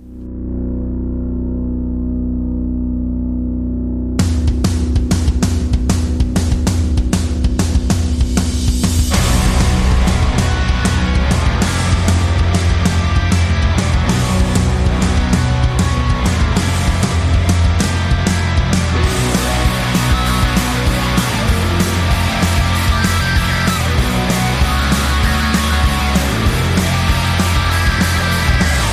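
A loud new punk rock song by a trio: after a few seconds of low droning, the full band crashes in with heavily distorted guitars and fast, pounding drums that keep up a dense, driving rhythm throughout.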